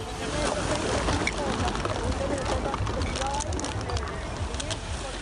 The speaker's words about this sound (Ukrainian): Так звучить море, коли хвилі викидають пластик на узбережжя.